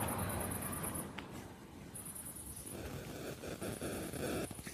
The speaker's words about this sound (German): Das sind die Störgeräusche, die dieser Starkstrommast macht. Äh, ich meine, das Plugin, das ich mir gekauft habe, damit es so an, sich anhört wie ein Starkstrommast.